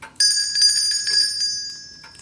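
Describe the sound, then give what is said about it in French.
A small hand bell (clochette) is rung at a door, a bright, high metallic jingle, its tone sustained and slowly fading after a sharp start, heard on its own without voices. “Arrête un peu de sonner la clochette et tire un peu plus tôt sur la petite ficelle qui pend, comme d'habitude.”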